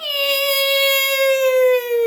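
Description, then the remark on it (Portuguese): A voice imitates the vacuum-cleaner-like whine a Renault Zoe electric car makes when decelerating: one steady, high-pitched tone held for about two seconds, fairly loud, sagging slightly in pitch toward the end. “Que é aquele carro faz um barulho tipo aspirador que é.”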